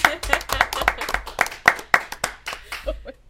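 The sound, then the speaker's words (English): Hands clap in a steady, fairly quick rhythm, about a dozen sharp, loud claps, with faint voices murmuring underneath. “I've never even seen the the bars go so loud with the clap.”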